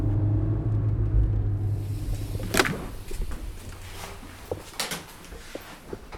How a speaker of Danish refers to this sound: Nu skal jeg bare lige se, om øh, jeg for det første kan få parkeret den her bil, og så skal jeg ind og se, om jeg kan finde hende.